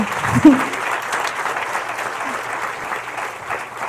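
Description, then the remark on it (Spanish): An audience claps steadily, a dense, even wash of many hands with a brief louder burst near the start, the applause holding at a constant level throughout. “si le vas a dar el aplauso, si se lo vas a dar.”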